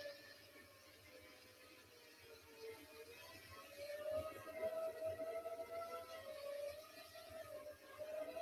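Drone propellers whir in a steady, high buzzing whine that wavers slightly in pitch and swells a little louder midway, running continuously with no voices; the drone is carrying a Pixel 6 Pro phone that records video.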